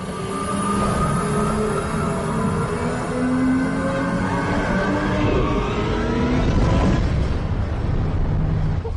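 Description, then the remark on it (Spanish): A loud, steady engine roar of an accelerating car or motorcycle, with layered tones that keep gliding upward as a Shepard tone, giving the sense of a vehicle endlessly accelerating. It stays continuous, with no speech. “Para que se note ese poder de motor usan el Stone en la forma en que el carro o la moto van acelerando.”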